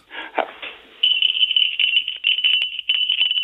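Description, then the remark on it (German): A tinny little fishing-rod bite bell jingles rapidly and continuously, its thin high ring shaken steadily for a few seconds after a brief rattling start. “Das ist vom blechernden Klang, kannst du das hören?”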